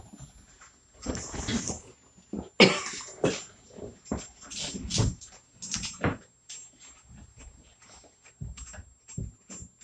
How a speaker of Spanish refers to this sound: Disculpes el día de hoy. Estoy tosiendo mucho. Volví a enfermar de la gripa, así es que mil disculpas por eso.